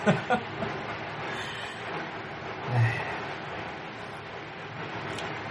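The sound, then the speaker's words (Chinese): A dense, continuous rattle of firecrackers, set off to celebrate in the suburbs outside the outer ring road, crackles throughout, with a few sharper pops at the start and a low thump midway. A brief voiced exclamation is heard at the beginning. “这老百姓的心情，在这炮仗声中，你看已经能听出来了，是吗？”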